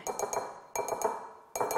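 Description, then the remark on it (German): Seeds just rinsed under the tap are tipped into a bowl in three quick pours, each a short rattling patter of small, bright clicks against the hard surface, with brief pauses between and no talking. “Und die Sömli kommen jetzt hier ins Schüssel rein.”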